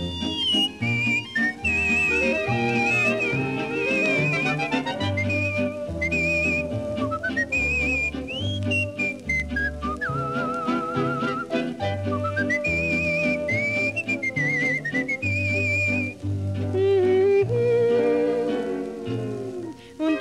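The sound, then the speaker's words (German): A clear, bright whistled melody from a 1942 song glides and trills over a full band accompaniment with steady bass notes, loud and continuous for about twenty seconds, no voices singing. “Und das ist meine Melodie, nach der ich singen muss, nach der ich pfeifen muss und tanzen muss und springen muss, mehr als die schönste Rhapsodie.”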